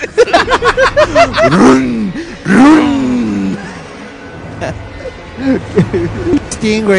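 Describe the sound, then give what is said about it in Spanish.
A voice loudly mimics the shrill steam whistle of a sweet potato cart with long wavering, sliding tones, while other voices chatter and laugh around it. “El carro de los camotes.”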